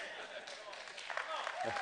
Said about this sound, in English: I, I, shouldn't say stuff like that because it sounds like I'm trying to create a sycophantic group of people that would just clap at everything I say.